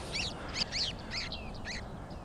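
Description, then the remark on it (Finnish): Several short, high metallic calls from bearded reedlings in a reed bed, repeated in a loose series over a steady low rumble of background noise. “Viiksitimaleita ruokoviidakossa”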